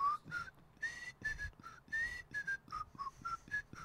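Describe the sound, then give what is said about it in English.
A person whistles the bright, bouncy theme melody of a 1960 TV show, short and sustained notes in a steady rhythm, clear with no talking. “it was whistled.”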